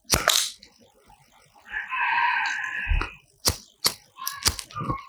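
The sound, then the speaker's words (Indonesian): Sharp mechanical clicks and a scraping flick, followed by a short sustained hiss, then several more quick snapping clicks, as a lighter is flicked to light a cigarette. “A A A S M R satisfying. Ini udah korek.”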